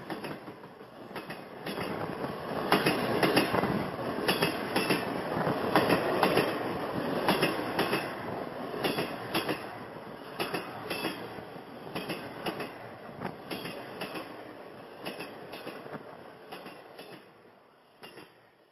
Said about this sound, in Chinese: 火车头亮起大灯。长长的光束射入星空，火车轰隆隆的开出车站，渐渐的越跑越远。